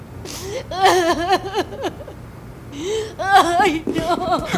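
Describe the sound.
A woman breaks down sobbing as a nurse takes her out of the room where her friend is being treated, her voice wavering and catching in uneven, halting bursts with short breathy pauses between cries.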